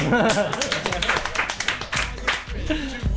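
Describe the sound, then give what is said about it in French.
A crowd claps in a steady burst of applause for a few seconds for the engineering school Centrale, the dense patter of hands mixed with voices talking and laughing over it. “On peut l'applaudir, hein, cette centrale.”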